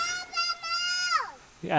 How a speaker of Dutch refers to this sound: kinderen houden hier echt eh, van schreeuwen.